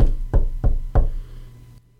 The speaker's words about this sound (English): he's knocking on the door.